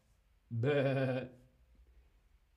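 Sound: sheep bleating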